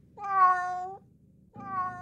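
Two drawn-out, low cat-like moans, rich and tonal with a wavering pitch; the first lasts nearly a second, then after a short pause a second begins and is cut off. No talking.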